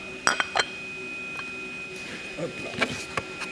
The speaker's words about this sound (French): T'as fini ton café, on va retourner la tasse. Ok, on y va.